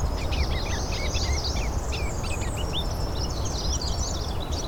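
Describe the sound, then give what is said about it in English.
A ruby-crowned kinglet sings a rapid, high-pitched run of chirps and twittering notes that carries through the whole clip over a steady low background rumble. “There's the ruby crowned kinglet.”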